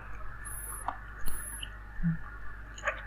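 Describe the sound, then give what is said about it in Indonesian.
Soft, close-up chewing of spicy food near the microphone, with small crunchy clicks and smacks scattered irregularly over a quiet background, and no one speaking. “gue lagi makan yang pedes-pedes nih sebentar nih aduh kalau nggak makan yang pedes-pedes gue nggak bisa kerja otak gue kayak harus dipecut gitu hmm Ini sebenarnya kalau di dalam podcast itu nggak boleh makan karena suaranya akan mengganggu kan”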